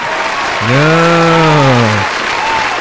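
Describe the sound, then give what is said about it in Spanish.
An applause sound effect played on the show Radio Independencia: steady crowd applause fills the whole stretch, with a sustained, rising-and-falling voiced 'ohh' sounding over it for about a second and a half in the middle. “quien se merece un fuertísimo oh, aplauso.”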